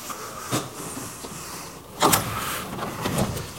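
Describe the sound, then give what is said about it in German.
A door sealed by the German Bundestag police is opened: a few sharp clicks and handling noises, then a louder scraping rush as it swings, followed by more faint rattling. No one speaks. “Ich muss dazu sagen, dass die Tür, die wir gerade geöffnet haben, mit einem Siegel der Bundestagspolizei abgesperrt war.”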